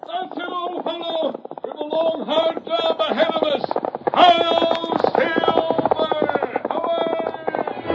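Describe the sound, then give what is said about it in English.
Galloping hoofbeats of the Lone Ranger's horse Silver pound in a fast, steady rhythm beneath loud, rousing orchestral music, the clatter continuing throughout. “The Lone Ranger rides again. Come on, Silver Old Boy!”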